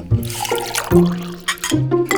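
Tea is poured into cups in three short bursts, a steady splashing stream with a ringing tone that rises slightly as each cup fills. Nobody speaks.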